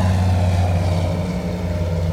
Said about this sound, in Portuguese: o hidroplano, Helga, enfim, sai do chão, um solavanco forte. Chega uma hora que parece que ele vai picar de novo, mas o Von Bass, piloto experiente, ele ri do perigo e do medo de vocês. Enfim, o avião começa a ganhar altitude.